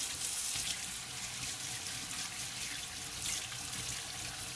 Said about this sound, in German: Fließend Wasser ist was Tolles. Ist gerade richtig schön laut wahrscheinlich, aber grundsätzlich finde ich, es ist die beste Entscheidung ever. Äh, nicht Entscheidung, Erfindung, mein Gott.